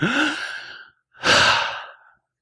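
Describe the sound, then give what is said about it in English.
A deep, audible breath drawn in, a short pause, then a long airy exhale like a sigh, with no talking. “Every breath that you take. Come on, take one.”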